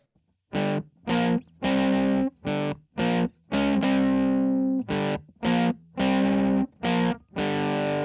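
A heavily distorted electric guitar plays a chunky rock riff of short, punchy chord stabs separated by brief gaps, with a few longer sustained chords. It is loud and close, with no voices.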